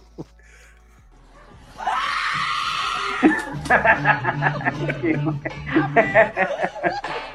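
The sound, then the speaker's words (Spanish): A woman in the background of a video lets out a loud, sustained high-pitched scream lasting over a second, followed immediately by a run of rhythmic chuckling and laughter bursts. “No, no Pero es que el grito es de la señora que está en el fondo.”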